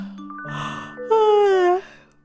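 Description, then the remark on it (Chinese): A storyteller's voice imitates a little bear's yawn in a children's story about a bear cub who loves to yawn: a breathy, hushed intake followed by a loud, drawn-out vocal tone that slides slowly downward in pitch, with faint steady musical tones underneath. “小熊总爱打哈欠。”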